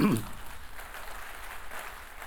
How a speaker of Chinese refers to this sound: 我们把掌声归给神，好吗？